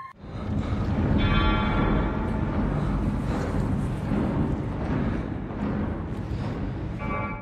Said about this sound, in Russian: Изначально никому из зрителей не пришло в голову сравнить звон со старинными часами. Это вполне мог быть колокол, которым создатели добавляли происходящему напряжение, однако сейчас музыкальное оформление уже не выглядит случайным.